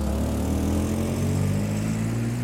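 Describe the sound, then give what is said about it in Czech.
A car engine hums steadily as a woman drives her car toward Prague, a low droning rumble with a slight rise in pitch as it pulls along, holding an even loudness throughout with no voices. “A o tři roky později nasedne do svého auta a jede směr Praha.”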